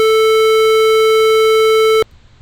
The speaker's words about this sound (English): So that's the square wave